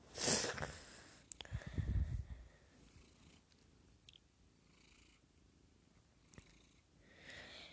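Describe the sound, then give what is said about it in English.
A female cat purrs while being given a belly rub, with soft rustling and brushing noises from the start and brief sniffs or snorts. The purr swells early, then settles low and steady. No one speaks. “I think the cat feels soft and it, she makes me feel warm and safe and and she's washing herself.”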